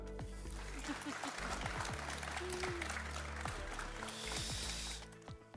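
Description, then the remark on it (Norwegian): An audience claps steadily for about five seconds for a mayoral candidate from the Labour Party (Arbeiderpartiet) at an election campaign event, a dense wash of many hands that stays fairly loud before fading out at the end, with faint voices mixed in underneath. “Det er lov å klappe.”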